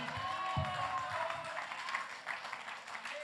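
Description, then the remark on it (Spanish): A crowd claps and cheers together in a sustained, dense burst of applause with raised voices shouting, loud throughout, a shout of joy and applause given to the glory of God. “Fuerte el grito de júbilo con un aplauso a la gloria de Dios.”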